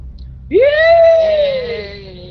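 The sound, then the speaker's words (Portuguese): Orcs let out a battle cry: a single loud, drawn-out monstrous scream rises sharply, then holds and slowly trails off over a low rumbling background. “Vocês escutam os orcs gritando.”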